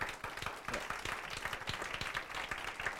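An audience applauds steadily, many hands clapping in a dense, even patter that holds at a fairly loud level for the whole stretch, with no voices standing out.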